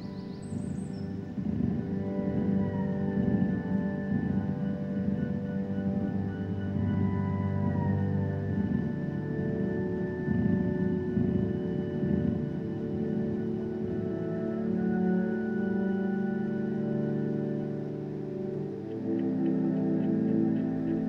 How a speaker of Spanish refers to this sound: Por ejemplo, ese tipo de cosas se fijó para organizar y componer esta música está especialmente hecha para gatos. Entonces, quería que escucháramos un poco de eso para que vieran qué les parece.